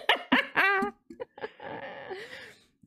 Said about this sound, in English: Okay, dog.